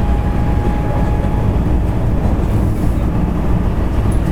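A steady, loud rumble of a JR West 223 series electric train in motion, heard from inside the car on a service to Tennoji and Osaka stopping at Mikunigaoka and Sakai-shi, with a continuous low roar and faint whining tones above it, no voices.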